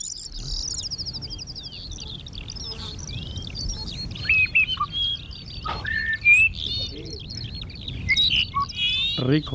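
Dupont's lark singing: a steady stream of high, whistled and buzzy phrases with sharp upward notes, carrying over a low rumble of open-air background noise.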